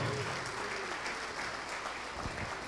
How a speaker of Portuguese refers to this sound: Vamos aplaudir ao nome de Jesus porque está chegando mais. Vamos aplaudir mais porque tem mais gente escapando.